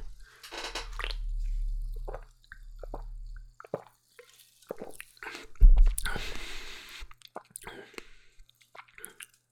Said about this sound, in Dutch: Maar misschien smaken ze wel heel anders. Ik ga eens een eh, slokje nemen.